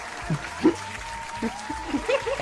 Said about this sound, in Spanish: Pégale guascazos más fuertes a la gente para que aplauda más rápido. Ya. aplauden, aplauden.